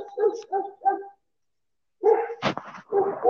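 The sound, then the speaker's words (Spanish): A small dog barks in short bursts: three quick yaps, a pause of silence, then a louder flurry of sharp barks and yelps. “el perrito.”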